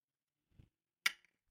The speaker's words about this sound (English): Today's uh shot shot for the show is the matters. the Patron. Let me get a uh, toast. Cheers. Cheers.